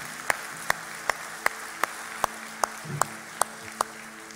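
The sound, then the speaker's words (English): Applause made of sharp, evenly spaced hand claps, about ten in a steady rhythm over a faint low hum, with no voices, given for people who just prayed a prayer. “Whatever it is, can we give a round of applause for those folks who just prayed that prayer?”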